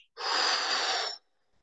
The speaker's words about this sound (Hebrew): שבו לכם בנוח. ותיקחו כמה נשימות עמוקות, נשימות כאלה שבהן אתם ממלאים את הריאות הכי הרבה שאתם יכולים